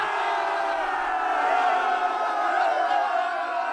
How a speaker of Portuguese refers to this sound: Ele merece aplausos da multidão enlouquecida.